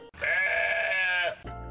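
A single drawn-out sheep bleat, loud, with a steady wavering tone lasting about a second, followed by a low muffled rumble.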